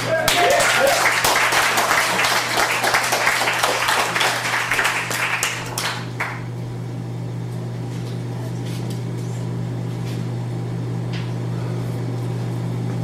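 A crowd at a poetry reading bursts into loud, dense applause, many hands clapping together for about six seconds before it quickly thins out, leaving a low steady hum and a few scattered claps.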